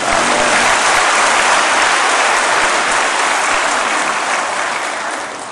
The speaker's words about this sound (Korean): 할렐루야 우리 하나님께 아침에 큰 박수 올려 달리시다